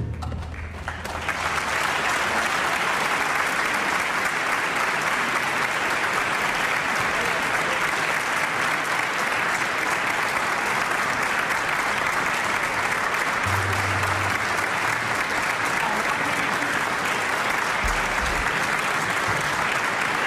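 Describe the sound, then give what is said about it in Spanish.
An audience at the Teatro Colón in Buenos Aires bursts into sustained applause as maestro Horacio Malvicino enters the stage. The clapping is a dense, steady wash that stays loud and even for about twenty seconds, with no voices speaking over it. “aplausos eran para el maestro Horacio Malvicino, queridos amigos, que ha entrado recién al escenario.”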